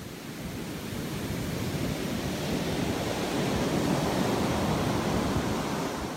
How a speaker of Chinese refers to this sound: 不过第二天还好，就是第二天正好是去黑沙滩，阴云密布，然后白色海浪唰唰。这里我又可以放一下那个海浪去冲击黑沙滩的那个熔岩颗粒的那个声音，很大声，很大声。